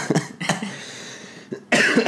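A person coughs several times, a few sharp hacking bursts followed by a longer, raspy cough at the end, with no talking.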